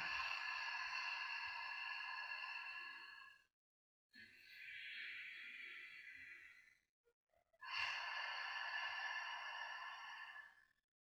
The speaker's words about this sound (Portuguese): Junto com esse ritmo tranquilo da sua respiração, desconecte do mundo lá fora e comece a mergulhar no seu universo interno, no seu ritmo interno focando sua escuta para o som da sua respiração. Inspira, expira.